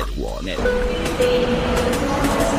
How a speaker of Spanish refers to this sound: Ahora sale el hipertren Balearic Network. La estación Metrópolis la ciudad musicalmente multicultural. Destino, un mundo de música.